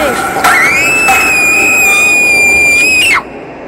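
Two girls let out a loud, shrill scream of fear, one long high-pitched cry held for about three seconds before cutting off abruptly, with no talking, in a dark train with a ghost and a shadow monster during a nightmare.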